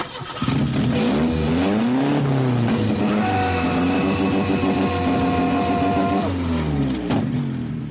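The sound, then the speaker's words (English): A car engine revs loudly, its pitch climbing and dipping in repeated surges for several seconds before easing off near the end. No one speaks. “I went in the car and I was like,”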